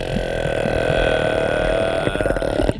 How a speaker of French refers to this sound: comme une porte qui grince et qui signale l'arrivée d'un cachalot.